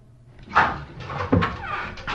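A door creaks and clunks open nearby, with a sharp knock-like thud midway and soft shuffling movement around it.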